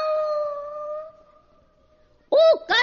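A small dog lets out a long, drawn-out howling whine, then after a brief pause gives two sharp, loud barks in quick succession.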